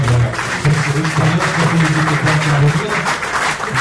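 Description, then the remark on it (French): A crowd applauds loudly and steadily, dense clapping filling the whole stretch without fading, with a low murmur of voices mixed in beneath it. “D'ailleurs, on va, on va, on, pour applaudir.”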